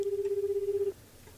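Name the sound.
phone call ringing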